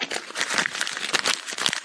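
A Mundo Bienestar paper flyer about hydrogenated water being crumpled: dense, crackling crinkles in rapid irregular bursts, steady and fairly loud for about two seconds, with no voices.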